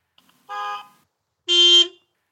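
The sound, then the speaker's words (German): Two short horn honks, one after another, the second louder and brighter than the first, each a steady buzzy tone lasting about a third of a second, with brief silence between and no talking. “Wir haben eine neue Hupe von ihm bekommen.”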